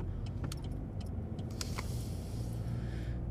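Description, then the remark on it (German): A car drives along, turning right, with a steady low engine rumble, while small metallic jingles, like swaying keys, tinkle intermittently over it. No one speaks. “So, ich muss jetzt ausnahmsweise mal hier rechts abbiegen, weil unten mal wieder die Straße gesperrt ist, diese Vollidioten.”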